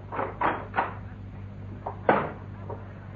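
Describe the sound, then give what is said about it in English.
A wooden wardrobe door opens with a few short creaks and knocks, then a sharper clunk around the middle, followed by quieter rattles, over a low steady hum. “Oh, it was a bit cramped in that wardrobe.”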